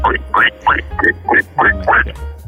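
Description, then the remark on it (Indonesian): A person imitates a duck while telling a children's story, making about seven nasal quacking sounds in quick succession, loud, each short and raspy with brief gaps between. “Ada juga suara bebek.”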